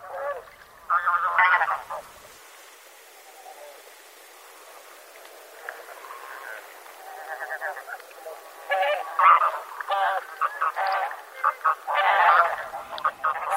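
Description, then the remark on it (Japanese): Bean geese calling on water at night while searching for food: bursts of overlapping mid-pitched honks and chatter, a short loud flurry, a quieter lull, then a busier, sustained chorus of calls. “先ほどから聞こえているのは水辺に響く声まだお腹が空いているのでしょうか夜の水面に食べ物を探して賑やかです”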